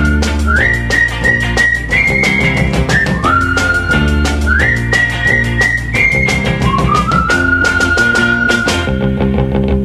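A bright, clear whistled melody of gliding notes rises and falls in two repeating phrases, played loudly over a full pop band with a steady, driving drumbeat.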